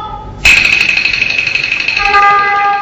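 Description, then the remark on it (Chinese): After a brief lull, the horn of an approaching car suddenly blares in one long, loud, high-pitched honk that holds steady to the end, its tone shifting slightly in the final second. No one speaks. “哎，别别，别看，哎，汽车来了，快走，快走！”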